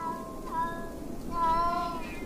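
Several cats of every kind and color meow in overlapping, drawn-out cries in the snow, a couple of tonal wails rising and falling over a low background hum, with no talking.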